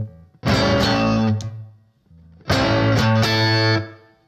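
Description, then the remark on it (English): Distorted electric guitar plays two loud phrases, each a quick hammered-on note run that lands on a low, ringing note on the low E string, with a short pause between them. “First change, instead of landing on the low E string to start off and then doing a rake, we're going to land with this hammer on and then play the low E string instead of the rake.”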